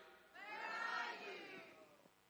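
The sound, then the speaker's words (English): A crowd of voices calls out "Where are you?" together in unison, a loud, sustained group shout lasting about a second and a half before fading off, with a reverberant quality. “Can you guys call out for me and say, Where are you?”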